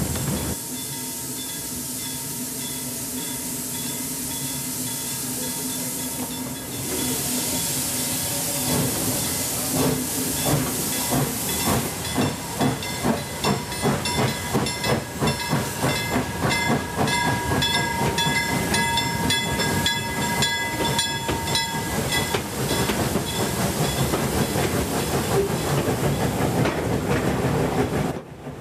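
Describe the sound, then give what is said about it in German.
A coal-fired steam train on a museum railway in Sweden rolls steadily along the tracks from Uppsala toward Faringe, past granite rocks in fine weather, its rhythmic clatter and hissing steam loud, with the pace picking up and a dense rumble filling the scene; no one speaks. “Damit geht unsere Dampfzugfahrt im Lindgrenland Schweden zu Ende.”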